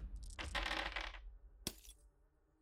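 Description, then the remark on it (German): Dice rattle briefly in a cup or hand, then clatter onto a hard surface with one sharp knock, fairly loud, with no voices, as a player rolls for initiative. “Ich würfel mal.”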